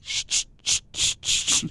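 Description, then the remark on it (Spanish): A series of about seven short, sharp aerosol spray bursts from a deodorant can, each a bright hiss in a quick, uneven rhythm, with no voices. “Era el desodorante, el spray que echaba el sobaco.”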